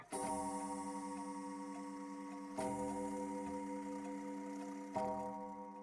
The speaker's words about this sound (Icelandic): Klukkan sló tólf á hádegi.